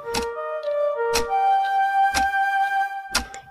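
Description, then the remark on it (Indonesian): A wall clock ticks steadily, one sharp click about every second, four in all, standing out over a soft, sustained musical drone in the background. “Lalu Ahmad berbaring sambil menatap jam dinding.”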